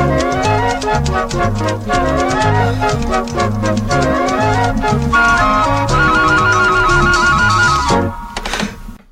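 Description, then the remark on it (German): Upbeat 80s-style instrumental music from an East German (GDR) typewriter advertisement plays loud, with a bouncy synth bassline, steady beat and bright melody, no voices, cutting off abruptly just before the end. “Äh, Nein, das ist eine, das ist eine Schreibmaschinenwerbung aus der DDR.”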